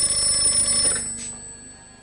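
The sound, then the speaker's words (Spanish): A telephone rings in a venue with a rapid metallic bell trill, bright and steady for about a second, then fades out as the ringing stops when Neo picks up. No one speaks. “en el local Neo Descuelga.”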